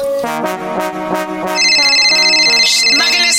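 A loud, melodic electronic phone ringtone plays a bright sequence of synthetic notes, and halfway through a layer of high, steady chiming tones joins in. No one speaks.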